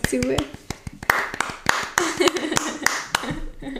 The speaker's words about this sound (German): Ähm, also für alle, wo, wo ihr sind und jetzt zu ja, gell? kleiner Applaus.